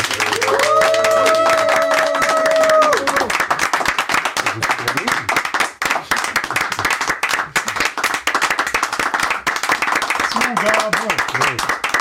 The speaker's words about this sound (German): Und hier eigentlich alle Meilensteine, Podcaster und noch viel mehr aus der Musikredaktion sind da, um dir mal einen ordentlichen Applaus zu spenden an dieser Stelle.